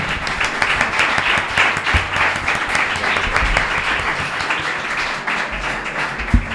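An audience breaks into steady applause, dense overlapping claps holding at an even, fairly loud level for several seconds with no voices standing out.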